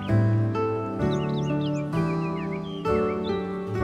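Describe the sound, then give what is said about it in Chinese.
Small birds chirp in woods stirred by a breeze, quick, scattered high tweets, faint beneath steady instrumental music with sustained chords that change every second or so; no one speaks. “你听到微风拂过树林的声音，小鸟的叫声，”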